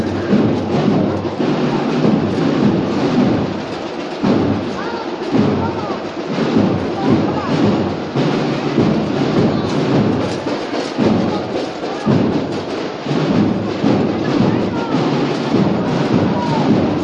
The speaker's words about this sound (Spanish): Menuda percusión lleva el palio detrás, ¿no? Se está imponiendo también las percusiones fuertes detrás del palio en estos últimos años, en estos últimos tiempos y eh, también es de agradecer, ¿no?